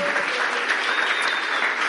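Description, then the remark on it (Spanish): Steady, dense applause from a church audience for their pastors, a continuous wash of many hands clapping at an even loudness for the whole two seconds, with no voices standing out. “Así que un fuerte aplauso para sus pastores.”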